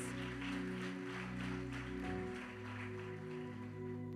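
An audience at a church congress claps for the Lord in a dense, continuous wash of applause, layered over sustained keyboard or organ chords that hold beneath it throughout.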